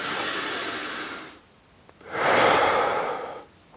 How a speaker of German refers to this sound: Ich habe vor einiger Zeit, und es ist einiger Zeit ist schon ein wenig länger, angefangen, morgens direkt nach dem Aufstehen zwei, drei Minuten tief in den Bauch hineinzuatmen. Also eine tiefe Atmung ganz bewusst zu atmen.